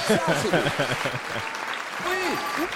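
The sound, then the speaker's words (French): A burst of canned applause triggered on sound pads, dense and steady clapping that fills the whole clip, with voices talking and laughing over it. “Ok, ok, on se calme sur les pads.”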